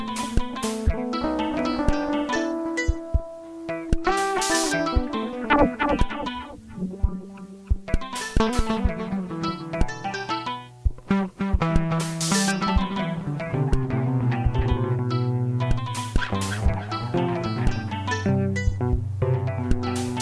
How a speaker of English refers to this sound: place where I am singing to you about this song and this beat which I made early, early, early, early, early, early.